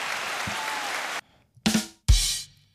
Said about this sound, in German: Ich mache mir selber einen Applaus, warte. Nein, ich will. Na, warte, warte, wir sind in der falschen Bank.